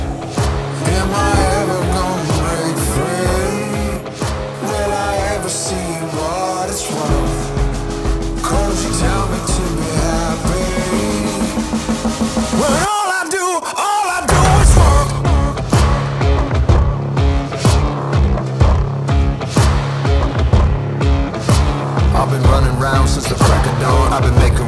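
A loud, dense rock song plays with a steady pounding beat and thick distorted instruments, dropping out briefly near the middle before crashing back in even fuller.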